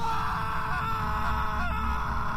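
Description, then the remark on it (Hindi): A sustained, strained human scream holds steady and loud for a couple of seconds, wavering slightly in pitch over a low rumbling background, with no talking. “अगले कुछ दिनों तक ऐसे ही चलता रहा then suddenly after the ninth day the first of स्क्रीमिंग्स started”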